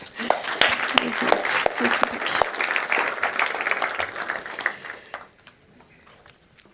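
An audience at a church service applauds the worship team with dense, steady clapping that holds for about five seconds, then thins to a few scattered claps as it fades out.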